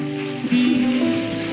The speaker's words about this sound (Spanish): Ahora dele un aplauso muy fuerte.